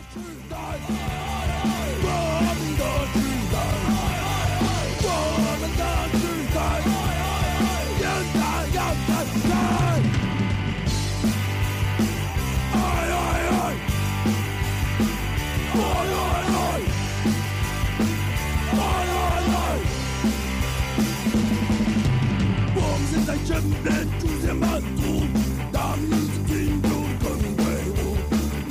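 A loud rock band song plays throughout, with dense guitars, steady drums and shouted male vocals; the full-band sound stays at an even volume, with two brief breaks where the cymbals and high end drop out.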